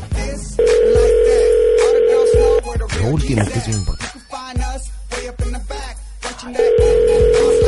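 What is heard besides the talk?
telephone ringing tone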